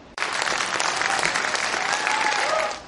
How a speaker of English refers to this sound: One moment that stood out to us was the applause and standing ovation for Ambassador Yovanovitch following her testimony, a sign of respect for a public servant at the end of a politically contentious hearing.